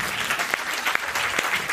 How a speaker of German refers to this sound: Ja, ein Applaus für diese Geschichte, bitte.